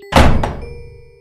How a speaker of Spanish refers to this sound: Tras lo cual, el primero en hablar agarró el picaporte y cerró la puerta de un golpe.